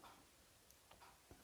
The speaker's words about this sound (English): If you can hear off in the background, you will hear a metronome.